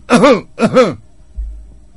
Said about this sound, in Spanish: tos. Ya lo sabemos que es tos.